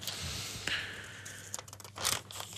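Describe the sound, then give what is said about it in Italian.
Pages of the Corriere newspaper being turned to reach page 18-19, a series of crisp rustling and crinkling bursts with a sharper flip near the end, no voices. “Eh, pessima, pessima, perché a pagina 18-19, scusate ci arrivo, eh. eccolo qua.”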